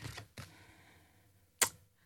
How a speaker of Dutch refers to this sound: Met, eh, trek alsjeblieft een kaart. En dan hoop ik dat er een vraag in zit die, eh, die ons verder helpt.